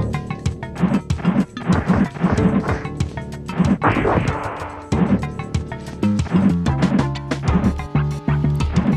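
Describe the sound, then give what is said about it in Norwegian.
Retro audio from the SNES fighting game Shaq Fu, based on basketball player Shaquille O'Neal, with a busy synthesized music track, punctuated by repeated sharp thwacks and crashing hits, loud and continuous throughout, with no one talking. “Jeg har litt lyd fra dette spillet, og det høres sånn ut.”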